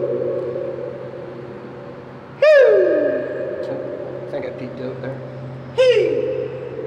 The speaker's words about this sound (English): I'm now walking through a tunnel underneath a railway track. Listen to this.